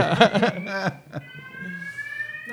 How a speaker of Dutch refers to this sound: We hebben een eh, brandalarm. We moeten naar buiten, denk ik.